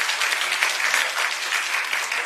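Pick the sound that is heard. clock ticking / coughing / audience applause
audience applause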